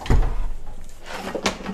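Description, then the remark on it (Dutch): A new cutting board being taken out to cut cheese: a low thud and a muffled rumble as a cupboard opens, then a single sharper wooden clack about a second later. No one speaks. “ik pak een nieuwe snijplank, want hier liggen allemaal kruimels op en ik heb geen zin.”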